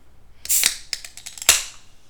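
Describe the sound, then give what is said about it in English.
A soda can being opened: a sharp crack of the tab with a burst of fizzing hiss, then a second snap followed by fading carbonation, no voices. “I'm about to open a soda can.”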